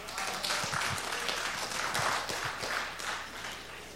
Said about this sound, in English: Give Jesus a hand clap.